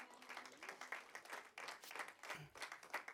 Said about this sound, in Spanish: Denle un fuerte aplauso a la gloria de Dios, hermanos.